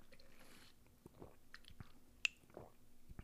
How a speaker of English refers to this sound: Let me have a little bit of water.